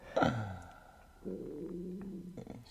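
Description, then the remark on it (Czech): A stomach rumbles: a short gurgling squeak at first, then a longer, steady low growl that churns for more than a second before fading. No one speaks. “mě kručí”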